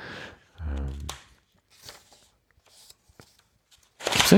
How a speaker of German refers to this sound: Ja, liebe Hörende, wenn ihr das hier so mitbekommt. Kommt, dann wisst ihr, dass es wieder Zeit ist zum Umblättern. zum, Weiter, zum Weiterklicken.